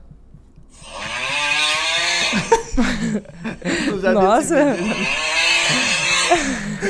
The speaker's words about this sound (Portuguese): É a moto, é. mano. Caralho, que roncão.